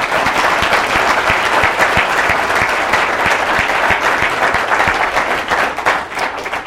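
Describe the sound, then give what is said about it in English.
An audience breaks into sustained, loud applause to thank two panelists at the end of a panel discussion, many hands clapping densely and steadily for several seconds before tapering slightly at the end. “can I uh, ask your help in thanking these guys? Jim and Charlie, thank you very much.”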